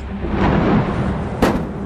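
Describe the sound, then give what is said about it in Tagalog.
A large tree branch slams into a car windshield with one sudden, sharp crack near the end, breaking through a steady, heavy roaring rumble that fills the whole clip. “nang may malaking sanga ng puno na humampas sa windshield ng kotse.”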